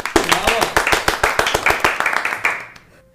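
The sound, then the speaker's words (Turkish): A brief burst of applause from a small group welcoming newcomers, quick overlapping claps at a steady rapid pace that fade out after about three seconds. “yeni gelenlere bir hoş geldiniz alkış alalım.”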